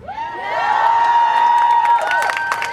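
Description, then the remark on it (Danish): A crowd at a rally for equality in the labour market lets out a loud, sustained cheer, many voices shouting together in one rising roar that holds for a couple of seconds before breaking apart. “Så, kære venner, er I klar til at råbe op for ligestilling på arbejdsmarkedet?”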